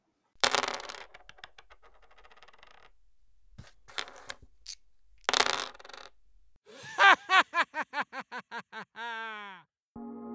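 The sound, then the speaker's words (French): Dice rattle and clatter across a hard surface in several sharp bursts with scattered clicks as they settle, followed by a different run of repeated tonal squeaks. “alors, c'est un son de D, le premier, parce que voilà, j'utilise beaucoup de, jeux de ludique en classe, j'adore ça.”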